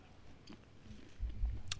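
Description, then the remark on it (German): Chewing and munching, with a few sharp crunchy bites of potato chips mixed with softer, wetter mouth sounds of olives, fairly quiet and with no talking. “schieben sich Oliven und Chips rein während Sie über Ess-Mannieren philosophieren”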